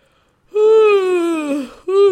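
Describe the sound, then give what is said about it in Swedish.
A person yawns audibly, a long drawn-out voiced sigh that slowly sinks in pitch, then breaks off briefly before another vocal sound starts. “så får man ju gäspa, ursäkta.”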